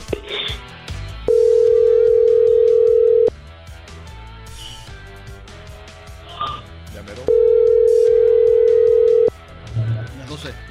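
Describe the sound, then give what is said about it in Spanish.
A telephone ringback tone sounds twice, each a steady, loud mid-pitched hum lasting about two seconds, separated by a long pause, over faint background voices and music. “Está marcando, está marcando.”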